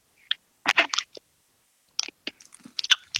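Loud crunching of a hard mint licorice candy, with sharp brittle cracks in irregular bursts, then a pause before more crunchy chewing resumes.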